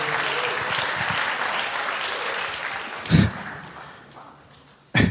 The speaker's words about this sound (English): Thank you for all you guys do. Give them a hand. God bless you.